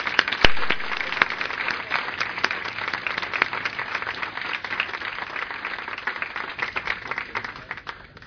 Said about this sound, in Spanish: La verdad es que un aplauso bien merecido.